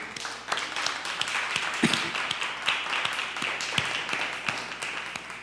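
An audience applauds to celebrate a woman's birthday, a steady, dense wash of many hands clapping for several seconds, with a few sharper individual claps popping out above the even, moderately loud clatter.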